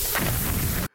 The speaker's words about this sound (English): So that sound is a bunch of Boost mobile phones materializing outside behind Shake.